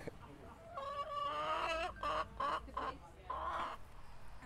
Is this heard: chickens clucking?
yes